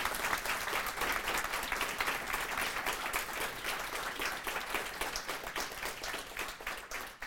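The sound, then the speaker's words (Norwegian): An audience at a session applauds a speaker steadily for about seven seconds, a dense, even patter of many hands clapping at a fairly constant loudness, with no voices standing out. “Så jeg kan gi ham en liten applaus.”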